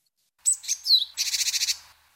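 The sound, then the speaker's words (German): A bird's alarm call of sharp, high whistled notes and sweeps, followed at once by a recruitment call: a rapid, even series of about nine buzzy, high-pitched notes. No one speaks. “ein warnender mit einem Recruitment Call”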